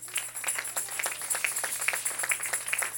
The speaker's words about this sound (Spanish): Ah, dele un aplauso, papá.